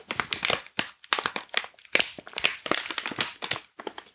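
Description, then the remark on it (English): A brown, yellow and silver packet of chocolate tea is opened, crinkling and crackling as it's handled, a steady run of irregular, bright rustling bursts with brief pauses between them, moderately loud and with no one talking. “Allow me to just open up the chocolate one here.”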